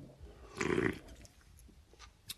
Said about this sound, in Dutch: Eh, jij, jij, neemt nu net een slokje water.